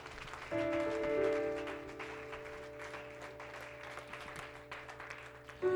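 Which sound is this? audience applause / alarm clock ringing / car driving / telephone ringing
audience applause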